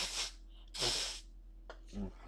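Three or four quick, breathy sneeze bursts, sharp and hissy, with short pauses between them, at a fairly low level against a faint steady background hum.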